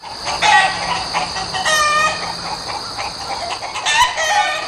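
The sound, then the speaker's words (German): A flock of a dozen hens in front of a workshop clucks excitedly, several birds cackling over one another in quick, overlapping bursts, steady throughout with no speech. “Das Dutzend Hühner vor der Werkstatt Gack hat aufgeregt.”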